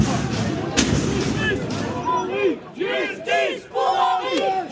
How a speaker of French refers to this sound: Dès que le mot acquitté est prononcé, la famille laisse éclater sa colère dans la salle d'audience. La cinquantaine de proches d'Henri L'Enfant sort en tapant dans les poubelles, dans les murs.